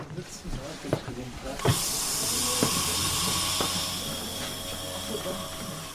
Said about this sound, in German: während wir aus dem neuen Bahnhof am Olympia-Eissportzentrum in Garmisch-Partenkirchen rausfahren.